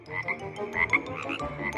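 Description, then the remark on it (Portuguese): A chorus of frogs croaking steadily, with overlapping throaty calls pulsing in quick rhythm, moderately loud, and no voices. “Rãs, sapos e cobras, até as bruxas têm coração.”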